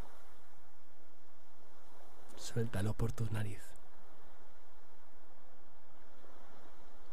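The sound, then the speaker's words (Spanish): Steady, soft rushing of ocean waves washing onto a sandy beach fills the background throughout, with a calm voice speaking briefly over it in the middle. “Fíjate en las olas que vienen Iván, como tu inspiración y tu expiración.”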